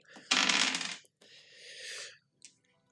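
Two six-sided dice are rolled for damage in a tabletop role-playing game, totalling 12: a sharp, fairly loud rattling clatter, then a softer rolling tumble as they settle, ending with one faint click. No one speaks.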